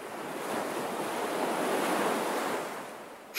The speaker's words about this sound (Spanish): Ahora podía ver la costa, y el paraguas la llevó volando hasta el océano. Al principio el mar se veía gris, pero poco a poco se fue volviendo azul intenso con espumosas olas blancas.